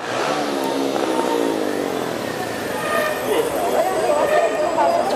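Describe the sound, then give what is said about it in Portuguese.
Busy city traffic rumbles steadily, with car and motorbike engines revving and passing one after another, a dense continuous wash of road noise with faint indistinct voices mixed in. “Tem os sons de cada veículo diferente.”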